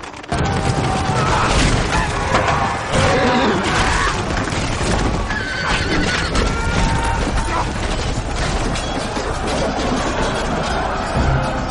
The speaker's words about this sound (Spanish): Los cascos de los caballos se oían con más fuerza. el trote, nuestro enemigo, dio con nosotros en carga a galope tendido hasta que sus caballos se estrellaron contra el muro de picas.